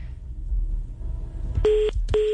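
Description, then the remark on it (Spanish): Two short, clear telephone keypad tones sound one after another near the end, following a stretch of low background rumble with no talking. “No, bueno, es que ahí está el tema del, eh, teléfono”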